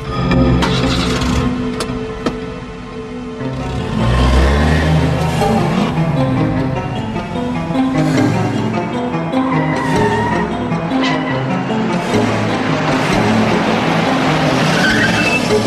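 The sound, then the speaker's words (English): A car engine roars and revs hard as the vehicle speeds off, its occupants taking off when someone goes after them, tires skidding and screeching, loud for the whole stretch with no voices. “There's the car I saw earlier. When I went after them, they took off.”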